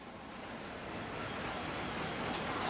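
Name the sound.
train arriving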